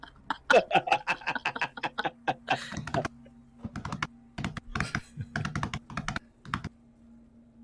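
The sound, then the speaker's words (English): Slow, uneven typing on a computer keyboard, with clicky keystrokes arriving one or two at a time and short pauses in between, fairly clear. “It's like a like a seventy year old receptionist at a school trying to type out someone's name.”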